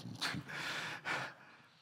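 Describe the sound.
A voice imitates snoring with two raspy, breathy snorts about a second apart, the second one longer, each trailing off into a soft exhale.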